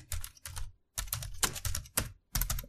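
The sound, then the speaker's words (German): Brisk typing on a computer keyboard, entering the Bible passage John 10, coming in several quick bursts of clicking keys separated by short pauses, with no voices. “Gib das mal in die Zeitmaschine ein.”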